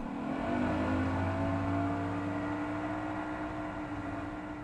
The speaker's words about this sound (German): Mit seinem Motorboot fahren wir durch Kanäle und Buchten